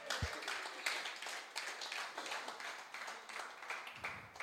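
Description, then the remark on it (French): A crowd claps together to welcome the Lord in a steady, dense patter of many hands that continues throughout, moderately quiet, with no voices standing out. “Accueillons le Seigneur, applaudissons.”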